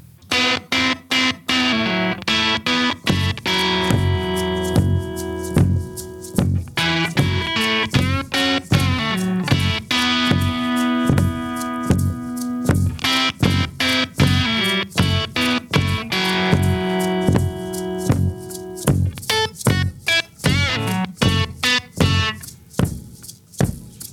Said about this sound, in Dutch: Ik denk dat er een extra floor tom is gebruikt eh, in de intro. Luister maar even.